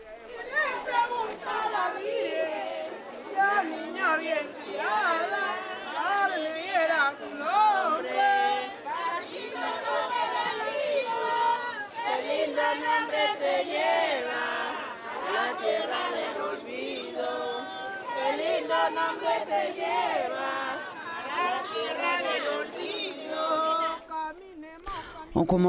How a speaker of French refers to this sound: on entend les proches, les amis, la famille, les voisines qui marchent derrière le cercueil et chantent pour fêter la défunte